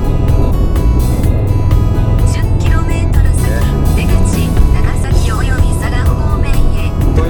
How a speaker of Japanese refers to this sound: ふうにね時々あの、ね、車もね喋ってくれるんですよ